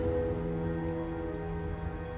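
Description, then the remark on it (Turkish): Steady rain pours down at night on a stormy hill, a dense continuous patter with a low rumbling undertone, even throughout with no voices. “Fırtınalı tepede terk edilmiş beni yağmurdan koruyacak bir kulübe bile yok.”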